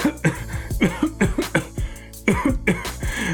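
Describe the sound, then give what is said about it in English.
A person coughs over and over in quick, harsh bursts, about a dozen rough, throaty hacks with only brief pauses between them. “oh, cough got your tongue?”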